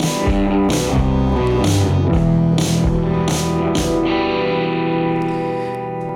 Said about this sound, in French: donc ce petit jingle que vous venez d'entendre, c'est toujours euh, Jazzar.